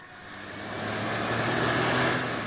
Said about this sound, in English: Dade Walkin's big Chevy roared through the dark streets of Point Harbor.